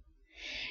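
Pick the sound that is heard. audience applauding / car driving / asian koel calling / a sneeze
asian koel calling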